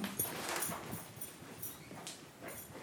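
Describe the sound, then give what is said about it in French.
A slightly frightened domesticated goat arrives and moves about, hooves tapping and scuffing irregularly over a few seconds, with soft rustling and brief higher-pitched noises, no one speaking. “Tiens, on va vous laisser passer là. Parce qu'elle a un petit peu peur, la chèvre”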